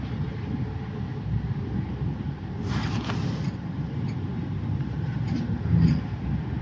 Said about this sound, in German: Ich bin weit weg von zu Hause und ich liege in einem Zug. Es rattert.